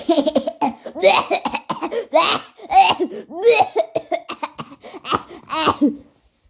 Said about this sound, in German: Hustet.